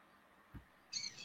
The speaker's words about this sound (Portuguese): Eu deixei aqui um pouco o, o microfone aberto para ver se, consegue, se vocês conseguem escutar o canto dos pássaros aqui que me rodeia num ambiente exatamente de paz.